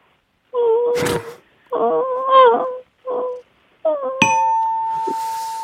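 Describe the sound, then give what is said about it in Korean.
A voice does a prepared, deliberately feeble imitation of a mosquito's whine in four short, nasal, wavering bursts, then a bright bell ding rings out and sustains over the last whine. “저 우선 하찮은 모기 소리 준비했습니다.”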